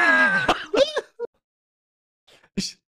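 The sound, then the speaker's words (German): A person clears their throat with a few short, rough bursts, mixed with brief voiced sounds, then a quiet pause before one more breathy burst. “Vielleicht sollte ich mich mal räuspern.”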